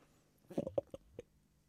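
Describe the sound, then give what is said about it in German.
A few quick knocks of bottles meeting at their tops in a toast, a cluster of clinks followed by a single softer tap, fairly quiet with no talking. “lustig, dass du oben an der Flasche anstößt”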